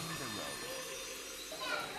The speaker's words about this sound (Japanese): 大人気ですねこの部屋この部屋は大人気で本当に多くの親子供の声がすごい